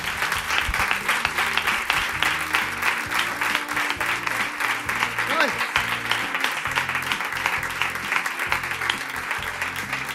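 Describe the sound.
Steady, dense applause from an audience fills the whole stretch, a continuous roar of many clapping hands at even loudness, with faint voices murmuring underneath.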